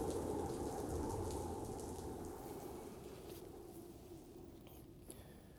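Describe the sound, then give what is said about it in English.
A thunderstorm with hail pours down steadily, a dense wash of rain with a deep rolling rumble of thunder underneath, loud at first and slowly easing over a few seconds. “And there came flashes of lightning, rumblings, peals of thunder, an earthquake, and a great hailstorm.”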